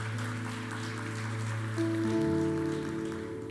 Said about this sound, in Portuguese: Se você crê, diga glória a Deus. Dê um forte aplauso àquele que vive e reina para sempre.